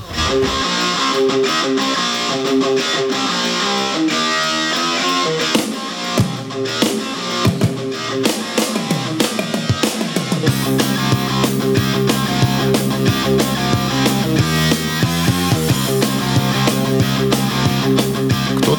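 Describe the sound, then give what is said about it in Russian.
A sped-up rock song plays loud and dense with no talking; the opening stretch is busy and bright, then a heavier, driving beat with punchy drums takes over about halfway through. “Песня э, взята, песня ускорена. Ваша задача понять по ускоренной композиции, а что же в оригинале это такое”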